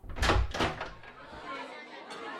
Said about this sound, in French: Et à midi pile, les portes s'ouvrirent euh, brusquement